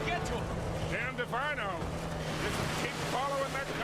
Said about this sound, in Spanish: Hay un efecto de agua.